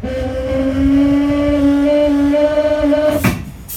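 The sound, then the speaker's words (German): Compressed air rushes through the main air brake line of a VT2E railcar with a steady, droning whistle-like hum, then cuts off in a sudden sharp hiss of escaping air. The driver is trying to release the brake while a safety device has not yet closed the line again. Fairly loud, with no voices. “Hat eine sicherheitsrelevante Einrichtung diese Leitung noch nicht wieder geschlossen und der Lokführer versucht trotzdem die Bremse zu lösen, klingt das so.”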